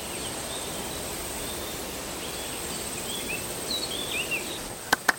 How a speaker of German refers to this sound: Hör auf das Schilf und die Vögel und ich höre auch den Wind.